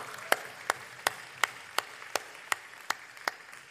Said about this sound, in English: Well, congratulations to all of us that call this place home on four years of amazing work that God's done in our life. Can we clap for that? Because that's exciting, right? Four years, right?